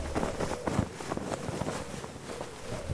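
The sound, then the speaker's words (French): Small pennants on a cord running along high nets flutter in the wind, giving a steady run of soft, irregular flapping and rustling over a low, breezy rumble outdoors, with no one talking. “Euh, donc euh, il y a des petits fanions sur ce cordon qui volent un peu dans le vent, on peut les entendre.”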